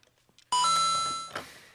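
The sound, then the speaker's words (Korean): A coin karaoke machine's coin-insert chime as a coin is put in to start the accompaniment: a loud, bright electronic tone rings out after a near-silent start, sustains with a slowly fading shimmer, then gets a second brief accent before ending. “그러면은 동전을 넣으시면 네. 반주가 네. 시작될 거니까요.”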